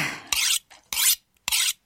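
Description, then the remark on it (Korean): Three harsh, gritty rasping strokes of scissor blades being sharpened during a haircut, each about a quarter second long with brief pauses between, bright and scraping, with no talking. “이 와중에 가위나를 가셨습니다 아이 됐어 이제 됐어”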